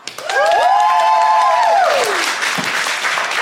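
The Machynlleth Comedy Festival audience, voting by applause on which side of an argument is right, bursts into loud, steady applause, with a few high, sliding cheers and whoops rising over the clapping in the first two seconds before the clapping carries on alone.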